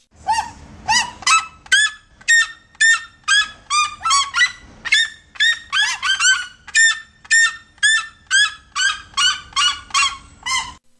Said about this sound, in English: And this is what a red legged Seriema sounds like. I just found this and I had to share it because it's so funny.